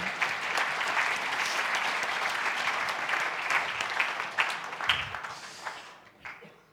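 An audience applauds steadily, a dense wash of many hands clapping at once, then thins to scattered individual claps and fades out near the end.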